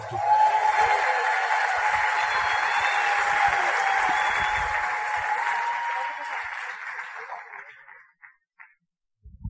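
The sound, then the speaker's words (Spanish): A crowd claps steadily in a dense, even wash of applause, welcoming a guest, that holds for several seconds, then thins out and fades to a few scattered claps before stopping. “voy a bajar con mi amante del Arte, por favor, recíbamela con fuerte aplauso.”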